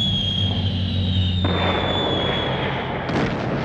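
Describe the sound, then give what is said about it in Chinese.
Bombs exploding at night in the second wave of the air raid on Dresden, as 529 British Lancaster bombers drop 1,800 tons of bombs: a dense, continuous rumble of blasts over a thin, steady high whistle that slowly sinks in pitch, with a fresh burst near the end. “哎，尽管如此，这个第二轮攻击中，五百二十九架兰开斯特又扔下了一千八百吨炸弹。”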